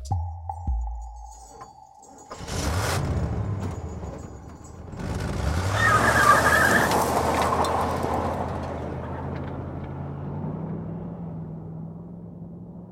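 A soft clink, then a car engine starts and revs, its rising drone pulling away and slowly fading while the low motor hum continues steadily.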